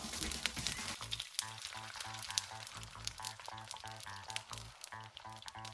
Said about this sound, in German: Die Möhren und die Kartoffeln würfeln, im Öl andünsten und mit Gemüsebrühe ablöschen.